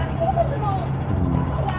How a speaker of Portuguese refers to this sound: É um ônibus bem confortável, de 98 lugares. Eu estou sentando aqui no fundo. E agora sim, estou no ônibus finalmente, indo para Lamban.